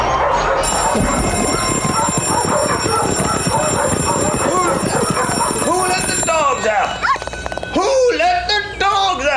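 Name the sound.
dogs barking and yipping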